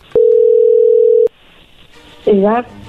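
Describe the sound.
A steady, single-pitched telephone tone as a call is being dialed holds for about a second and stops abruptly, followed by a brief quiet hiss and then a short burst of a voice.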